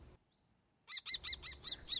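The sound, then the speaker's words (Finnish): A common kestrel calls in a rapid, loud series of about six sharp, shrill 'kee' notes, evenly spaced, starting after nearly a second of near silence. “Viikon luontoääni: Tuulihaukka”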